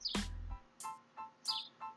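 Birds chirp in short, bright bursts, about five quick calls spaced unevenly over a couple of seconds, fairly faint, with a brief low thump near the start and no talking.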